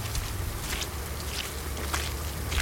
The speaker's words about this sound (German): Ähm, ich drehe mich jetzt einfach mal um und gehe ein paar Schritte zurück, da wo eigentlich das sein müsste, wo wir gerade waren